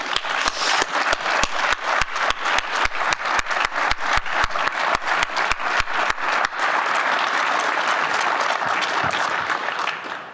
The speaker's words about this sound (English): I want my family to stand up. Let's give my family a round of applause.